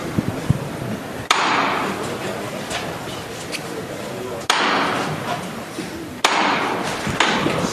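Three sharp, loud hammer knocks on a religious procession float, the Sin Pecado with its relief of the Virgin, calling the bearer crew to lift, strike at uneven intervals, each ringing briefly, over a steady murmur of a crowd with faint voices in the background.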